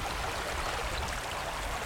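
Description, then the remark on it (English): River water flowing in a steady, continuous rush, a broad hiss and babble with no pauses, even in volume throughout, with no voices. The river's water is not very brown at the moment. “But for now we've just got the song of the water.”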